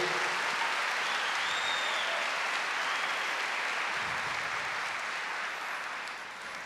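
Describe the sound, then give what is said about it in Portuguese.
An audience applauds God steadily, a dense, continuous wash of many hands clapping at an even loudness, easing slightly toward the end, with no voices over it. “Pode aplaudir esse Deus que é poderoso e vencedor.”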